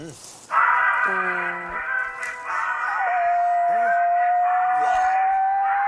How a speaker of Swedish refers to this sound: Det finns ett sätt att få hundar att sjunga. Va? Min hund sjunger varje gång det här händer.